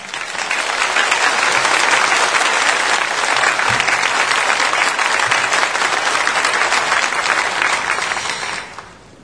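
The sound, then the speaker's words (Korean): A large crowd applauds steadily, a dense wash of clapping that holds strong for several seconds before fading out at the end. No one speaks over it. The applause welcomes a preacher coming forward to give a sermon. “나오실 때 박수로 환영합시다.”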